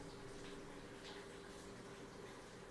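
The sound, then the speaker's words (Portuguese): Rain falls steadily, a continuous soft hiss of water with no breaks or distinct drops standing out, heard on its own without any talking. “O barulho que vocês estão ouvindo é da chuva.”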